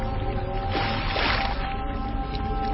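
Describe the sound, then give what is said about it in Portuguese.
A single heavy slap into water bursts up about a second in as a rolled-up cloak strikes the water of the Jordan River, followed by a brief rushing splash, over a steady low droning background. “Aí Elias tirou a sua capa, enrolou-a e bateu com ela na água.”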